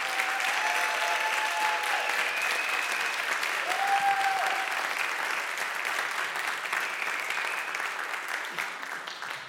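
Sustained audience applause in a church fills the whole stretch, a dense steady patter of many hands clapping, loud and even before easing slightly toward the end, with faint voices calling out beneath it.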